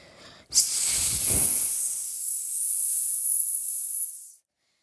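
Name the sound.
snake hissing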